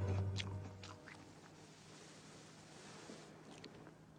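Someone chews raw garlic during a filmed scene. A few sharp, crisp crunches come in the first second, then softer, wet chewing continues quietly over a steady low hum.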